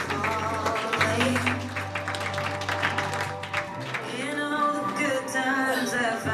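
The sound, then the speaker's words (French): The audience at a fashion show applauds a model walking the runway, with steady, dense clapping that is strongest in the first few seconds, while sustained music plays underneath and continues as the clapping thins out. “Sous les applaudissements euh, des observateurs, du public.”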